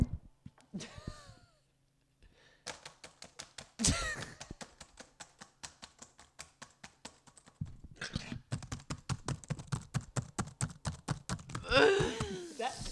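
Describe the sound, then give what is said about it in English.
A voice imitates someone clicking while doing research, with a long run of quick, evenly spaced mouth clicks, fairly loud, broken by a few breathy bursts and brief vocal sounds. “And then it's like, I'm clicking, doing research, and you're like, it's clicky. You're clicking.”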